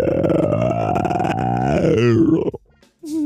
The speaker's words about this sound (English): Excuse me, them are cauliflower burps.